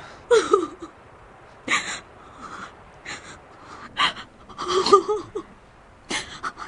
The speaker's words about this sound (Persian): نه نه دیگه گریه نکن به خودم قول دادم هر چی که پیش اومد گریه نکنم